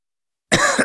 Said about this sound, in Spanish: ¿Cansado de toser?